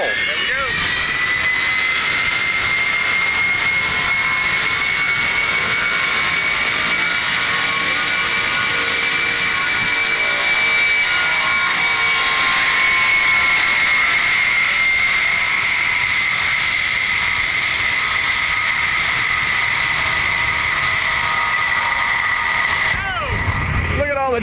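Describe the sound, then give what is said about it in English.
The big jet engines of a C-5 cargo plane roar steadily with a piercing high whine that holds and slowly shifts in pitch, a loud, sustained spool-up building toward takeoff thrust on the takeoff roll, filling the whole recording. “And there, the engine is spooling up.”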